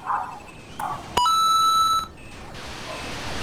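Moon Patrol arcade game sounds: a few short chirpy electronic blips, a sharp click, then a steady, bright, buzzy tone held for almost a second, fading into a soft hiss.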